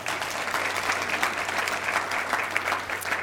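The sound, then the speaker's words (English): Steady applause from an audience, many hands clapping in a dense, continuous patter that holds at an even level for a few seconds with no voices standing out. “I, yeah, give them a clap.”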